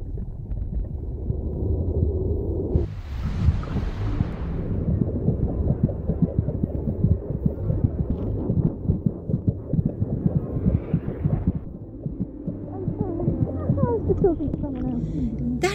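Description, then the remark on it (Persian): Muffled, low whooshing and a steady throbbing pulse, the ambient sound inside a womb, with a brief hissy rush near the start and faint, indistinct voices filtering through as if heard underwater. “میخوام شما رو با خودم به سفری داخل رحم ببرم آماده ای؟”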